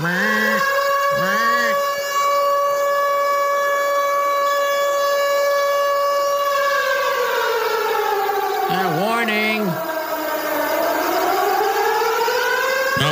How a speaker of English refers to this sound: monthly 11 a.m. full on siren check to get everybody ready for what is known as severe weather awareness week.